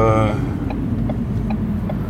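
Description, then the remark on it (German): A steady low rumble fills the inside of a moving car, recorded with a very small handheld recorder, with a brief voice sound at the start and faint, evenly spaced ticks running under the engine and road noise. “also dieses Gerät, womit ich jetzt auch gerade hier im Auto aufnehme.”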